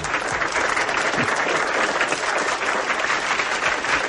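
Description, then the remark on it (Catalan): A steady wash of applause from a crowd, dense but fairly subdued, with no standout cheers, holding an even level for about four seconds. “Aplaudiments tímids, eh?”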